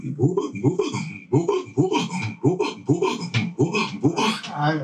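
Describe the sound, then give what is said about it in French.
A voice imitates a drum with the mouth (boulaguel, used to accompany wake songs), producing a steady run of rhythmic, breathy percussive pulses, moderately loud, with no talking over it. “c'est le son du tambour qu'on fait avec la bouche pour mm.”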